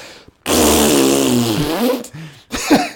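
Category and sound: vocal imitation, voice imitating a fart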